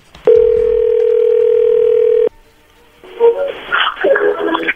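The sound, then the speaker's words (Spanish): A steady, mid-pitched telephone tone sounds loudly for about two seconds as a phone call is placed, then cuts off abruptly. After a brief quiet pause, a person starts talking. “Bueno, le va a llamar el lobo.”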